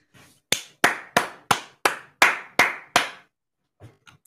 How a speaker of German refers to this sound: Applaus.